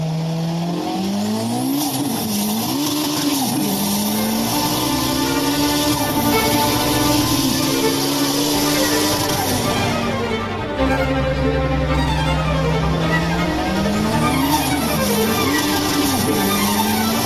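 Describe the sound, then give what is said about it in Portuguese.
A car engine roars, sputters and revs continuously as the accelerator is pressed, pitch climbing and dipping in repeated surges, loud, with a brief break near the middle before the revving resumes. No one speaks. “O motor engasgava e ela pisava no acelerador com a suavidade de uma bailarina”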